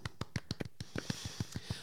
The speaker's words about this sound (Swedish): Stor applåd! Woo!